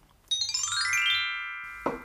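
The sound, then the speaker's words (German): A bright quiz bell rings out once after a contestant presses a button, its tone sliding downward and sustaining as it slowly fades, followed by a short dull knock at the end. No one speaks. “Da hat es geklingelt.”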